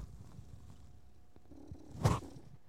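A male cat that has jumped onto a person's stomach purrs in a low, steady rumble that runs throughout, swelling into a brief louder, breathier burst near the end. No one speaks.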